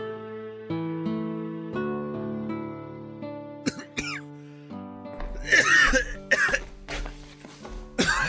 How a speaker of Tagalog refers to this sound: Kuya, ito tubig. Mukhang masama na yung ubo mo ah. Pa-check up ka na kaya.